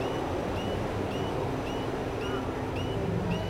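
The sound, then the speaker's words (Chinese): A metro train rolls past with a steady, dense roar and low rumble, while short high-pitched squeals repeat at regular intervals, a little under once per second, over the constant noise. “还有刚好有那个地铁过去。”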